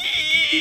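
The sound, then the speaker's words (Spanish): A voice briefly imitates a faulty washing machine with a worn drum bearing, making a steady, high-pitched whining drone that holds for under a second, fairly loud. “Cosas prácticas, que si mi lavadora suena así”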